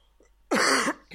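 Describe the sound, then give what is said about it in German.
A single harsh cough, loud and rough, lasting about half a second, with a brief softer rasp following just after. “Ich huste nochmal kurz.”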